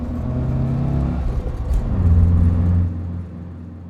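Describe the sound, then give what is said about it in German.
A car engine revs hard and roars as the vehicle pulls away quickly, the low rumble swelling louder for a moment before dropping off near the end. No one speaks. “Mein Sohn, ich finde immer noch, er fährt wie Nicke Lauda.”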